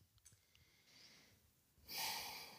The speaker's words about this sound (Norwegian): Ja, umiddelbart så trekker jeg pusten. Så det, er sånn, det skjer noe med pusten min.